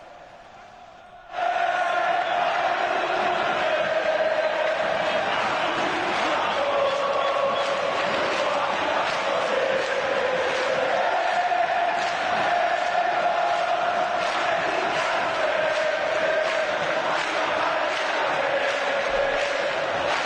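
A huge crowd of Cruzeiro football fans at the old Mineirão stadium chants and sings together to welcome the team, in a sustained, steady roar of massed voices, loud and continuous throughout, with no other sounds standing out.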